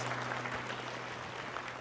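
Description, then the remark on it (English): A church audience applauds to celebrate those accepting Christ that day, a steady, dense wash of clapping that fills the whole moment at an even level, with a low electrical hum underneath and no voices. “Can we celebrate big time those accepting Christ today?”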